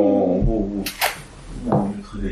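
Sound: cat meowing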